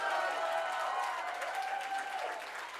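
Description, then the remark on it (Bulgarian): A church audience applauds and cheers together, giving praise, a steady wash of clapping with raised voices that holds loud and continuous throughout with sustained enthusiasm. “Дай му 10 секунди слава, ако вярваш, че можеш. Хайде, хора! Хайде, извикай, ако вярваш!”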